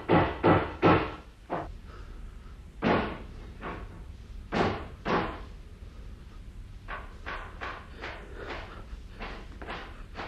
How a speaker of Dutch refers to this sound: Die vrijgezel die nu in de kamer van meneer Cuperus woont. Waarom in godsnaam timmert hij de hele dag? Waarom in godsnaam? Waarom? hij knutselt altijd.